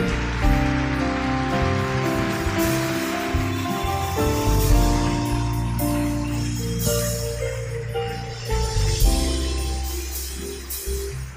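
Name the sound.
audience applause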